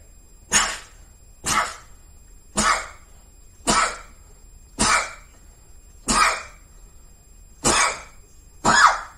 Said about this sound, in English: That was that was eight sneezes. I don't get away. Uh, my crew, like my, eight, bells, my, my crew knows I don't get away with less than eight.